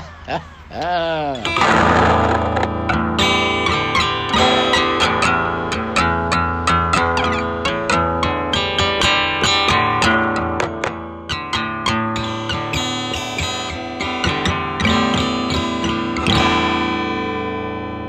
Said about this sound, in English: Uh, I know good things have happened for uh, myself and uh, that's why I'm here to play the blues, tell y'all about it. You like to hear it? Here it goes.